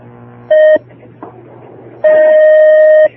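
A telephone line rings as a listener's call connects to a call-in program: a brief electronic ring tone, a pause with faint low hum, then a longer, steady ring, clear and fairly loud with no one speaking.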